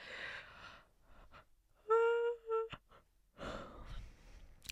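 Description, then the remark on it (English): A long yawn from a person getting really tired: a breathy inhale, then a brief voiced, tonal groan in the middle, and a drawn-out sighing exhale at the end, with no talking. “Let me know if that made you yawn.”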